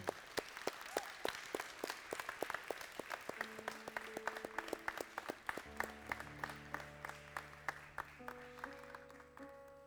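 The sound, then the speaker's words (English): A church audience applauds fathers standing before them at a morning service, dense, continuous clapping, while sustained organ-like tones enter partway through and swell beneath the applause. “Come on, give these fathers a hand.”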